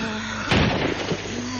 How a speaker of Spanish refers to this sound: Fuera se escucha el barullo del ataque de los revolucionarios.